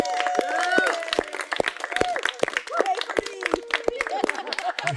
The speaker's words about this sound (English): So, first of all, round of applause to our six awesome presenters.